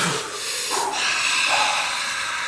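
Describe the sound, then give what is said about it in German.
A long, loud, breathy rush of air, like a deep inhale flowing into a slow exhale, with no talking over it. “jetzt atmet alle mal ganz tief durch.”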